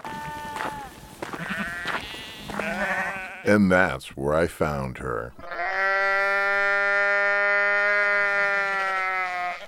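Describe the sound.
A sheep, her hind legs jammed in a crack between rock ledges and badly wounded, screams in distress at the southern tip of an island, loud: a few strained, wavering bleats followed by one long, sustained cry, coming right after a short line of speech. Wind from the southeast; tide halfway to high.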